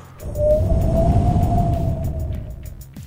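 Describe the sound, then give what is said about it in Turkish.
On the car chat show Araba Muhabbeti, a voice imitates a cold, howling wind as a sound effect: a breathy, rumbling whoosh with a steady mid-pitched hum held for about three seconds, fairly loud, then fading slightly at the end. “Soğuk defekti yapayım mı?”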